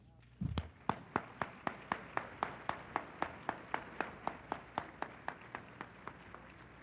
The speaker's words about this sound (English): The literally hundreds of volunteers and staff who have worked for over a week to make this evening possible. And if they're out there, just stand and let's give them a round of applause.